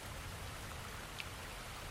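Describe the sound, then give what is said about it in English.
A steady, soft wash of running water in a cave, with one small drip plinking clearly just past the midpoint. No voices are heard. “I mean, if there's water running in here, then it's gotta go out somewhere.”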